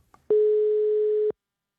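One steady, loud telephone ringing tone lasting about a second as a call goes through, preceded by a faint click, with silence afterward and no voices.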